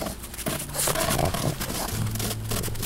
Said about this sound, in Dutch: En het geluid van ijs op schors.